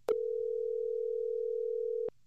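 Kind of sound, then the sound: signal or alarm, telephone ringing tone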